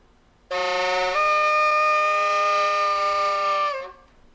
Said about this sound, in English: It is actually a saxophone that someone played over and over again and then Dude, adjusted I was totally gonna guess horn yeah and adjusted the audio i have the raw sound of the saxophone before they did the audio adjustments